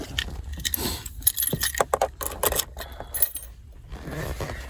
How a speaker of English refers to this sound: make sure I'm all in my fingers and everything before I get into my truck and before I even touch my key fob because if I grab my key fob, click it, open my truck, and then get in and uh, then get in put my keys into the ignition.